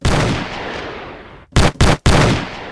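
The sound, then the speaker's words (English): Loud gunshot sound effects: one blast with a long rumbling tail, then three sharp shots fired in quick succession, each cutting off abruptly. No voices are heard. “Shout out, not shout out, gunshots.”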